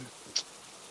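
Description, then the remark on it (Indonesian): Heavy rain makes a steady, muffled hiss, fairly quiet, with one brief sharp tick partway through and no voices. “aduh aduh hujan”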